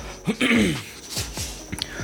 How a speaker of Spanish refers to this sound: voy a tener una carraspera horrible.